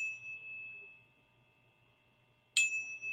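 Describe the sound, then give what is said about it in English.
A tuning fork rings with a steady, pure high tone that slowly fades, then is tapped again with a light metallic click, and the bright, clear tone swells back up. No one speaks. “but see the tuning fork and just lightly”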